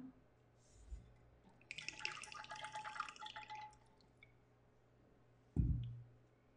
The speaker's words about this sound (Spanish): Mientras voy a tomar agua.